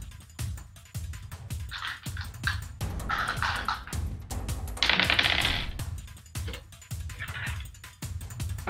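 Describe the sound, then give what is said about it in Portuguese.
Dice rattle and tumble across a hard tabletop, a dense run of sharp clicks and clatters lasting several seconds, fairly loud, with no one talking. “E aí eu vou rolar um bagulho aqui.”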